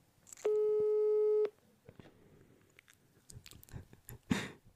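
A single steady telephone ringback tone on an outgoing phone call sounds for about a second, loud and clear, then gives way to faint clicks, rustling and handling noises with no one talking.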